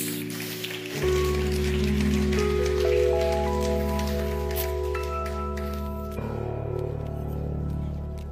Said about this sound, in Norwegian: Skal vi gi lovsangerne en eh, applaus?